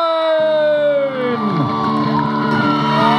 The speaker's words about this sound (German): Applaus wir gratulieren